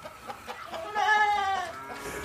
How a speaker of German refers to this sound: ich bin gerade auf einem Schweinebauernhof und da ist ein Schwein, das hat mich so sehr an dich erinnert, weil es so einen niedlichen Rüssel hat.